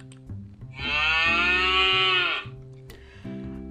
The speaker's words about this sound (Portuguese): Não só esses animaizinhos, também tinha uma vaca muito fofinha.